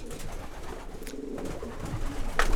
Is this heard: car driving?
no